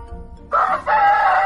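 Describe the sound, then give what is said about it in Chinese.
A rooster crows loudly, a two-part cock-a-doodle-doo with a short rising burst followed by a longer sustained, harmonic call, after a brief low hum. “就这样，国王的女儿只得又当了女佣，一直干活到公鸡啼鸣。”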